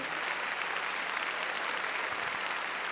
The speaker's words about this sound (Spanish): A ver, démosle palmas fuertes al nuestro Señor.